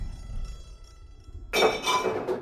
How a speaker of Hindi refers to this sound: kitchen में से कुछ बर्तनों की आवाज आई